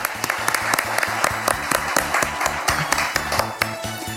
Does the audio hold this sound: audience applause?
yes